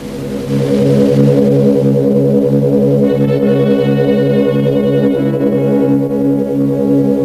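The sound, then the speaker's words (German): A loud, sustained jet engine roar of a British Airways Concorde supersonic passenger airliner in a 1976 British Airways advertisement drones steadily throughout with a deep, pulsing throb, and a brighter, higher whine joins in about halfway through. No one speaks. “Ein Werbespot von British Airways aus dem Jahr 1976 und da hört man auch so ein bisschen Concorde-Knallkulisse.”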